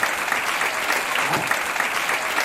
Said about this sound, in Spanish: Y de los otros países que vienen, no sé, eh, se pongan de pie también para aplaudir los de otros países que vengan.